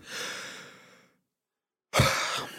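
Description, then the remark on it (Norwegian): A person demonstrates heavy, catching breaths, as when one has to catch one's breath: a long, loud breathy rush that trails off, a second of silence, then another sudden, forceful breath. No talking. “du vet når du må hente pust, mm.”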